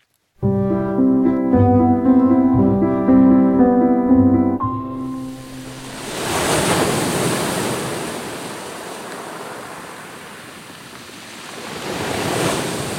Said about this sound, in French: J'entends la mer, j'entends le vent. On est à Antibes sur la Côte d'Azur.